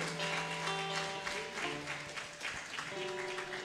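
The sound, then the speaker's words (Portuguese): An audience claps steadily for a few seconds as applause given to the Lord, a dense wash of applause over sustained organ or keyboard tones that hold and shift underneath. “Se quiser, você pode dar um aplauso ao Senhor também.”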